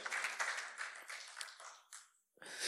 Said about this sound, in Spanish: Denle a fuerte aplauso al Rey de la Gloria, a Jehová Dios de los ejércitos. Aleluya.